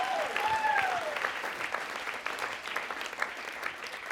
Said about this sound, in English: Can we give God a clap of praise right now?